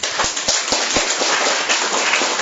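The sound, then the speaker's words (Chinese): A crowd bursts into sustained applause for all the peaceful-type leaders, dense overlapping claps forming a steady, loud crackling wash with a few sharper individual claps standing out, and no voices. “所以把掌声送给我们所有和平型的领导人。”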